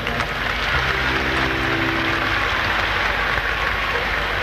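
A crowd applauds with dense, steady clapping that stays loud and even for the whole stretch, with a faint low tone sounding briefly underneath early on.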